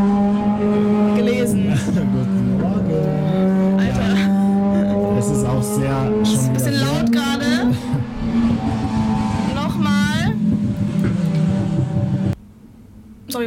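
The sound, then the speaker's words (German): Loud motorcycle engines roar past for about twelve seconds, their droning tones rising and falling in pitch as they rev and pass, then the noise cuts off abruptly. “mussten gerade ähm, pausieren, weil es so laut war von diesen Motorrädern.”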